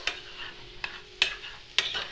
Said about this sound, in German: und rühre es gleich ein bisschen mit dem Kochlöffel um, dass alles ein bisschen gleichmäßig ist.